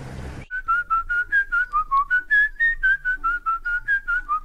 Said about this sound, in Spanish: Horacio escuchó algo así como unos silbidos.